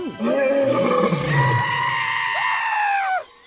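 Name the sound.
tiger roaring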